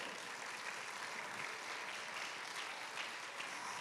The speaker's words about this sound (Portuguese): Pode aplaudir o Senhor.